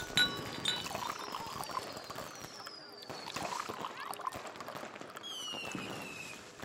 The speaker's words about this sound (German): Hast du den Sekt? Ja, und sogar gekühlt. Gläser? Aber sicher doch. Dann schenk fix ein.